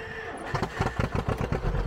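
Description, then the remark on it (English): An old two-cylinder tractor engine cranks and catches, starting slowly, then settles into a loud, uneven putt-putt rhythm of heavy low exhaust pulses, with no voices. “There's nothing else better than after you work on one for two or three years when you crank it over and it starts.”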